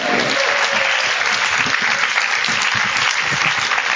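Sustained applause from an audience as a guest speaker is introduced and stands, a dense, steady wash of many hands clapping at an even loudness throughout, with no voices standing out.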